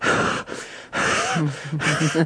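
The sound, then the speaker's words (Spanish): A voice imitates the speaker's own heavy panting on arriving near the top of a climb: three loud, breathy gasps in quick succession, the last ones turning into strained, voiced huffs. “Esa era mi, respiración.”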